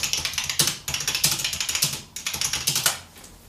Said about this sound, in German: Das ist halt so eine mechanische oh. Tastatur, also. Ich weiß nicht, soll ich mal ein paar. Ja, paar, mach mal. Mach mal spiel mal ein paar Töne, ne? Zeig mal.